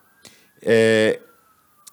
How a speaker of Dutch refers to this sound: Ja, u hoort op dit moment de ambulance. Ik zei het al, ik sta buiten op straat. Of eh, op het balkon.